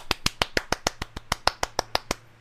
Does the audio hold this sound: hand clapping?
yes